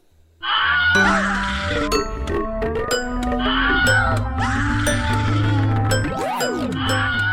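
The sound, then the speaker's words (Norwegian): A short, loud injury-themed musical jingle with ringing dings and chimes over sustained low tones, plus groaning, wailing sounds and a quick swooping pitch slide near the end; no talking. “Ja, så en skaderelatert jingle.”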